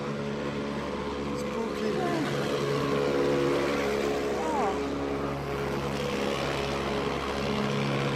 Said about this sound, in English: I'm getting nearer the noise now. really warm, really dark, million stars in the sky. More taxis and buses.